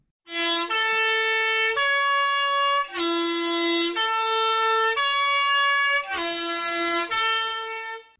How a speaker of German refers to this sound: Ob die Busfahrer in Zukunft auch für Hoffmann hupen werden?